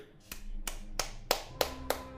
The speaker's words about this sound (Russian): начал как дебил аплодировать, сидя один у себя в квартире.